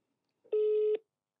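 A single steady electronic phone tone, about half a second long, sounds clearly and alone, like a ringback beep heard on a call before someone picks up.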